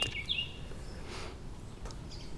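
A few faint, quick bird chirps sound early on over a steady, hissy outdoor background, and no one speaks.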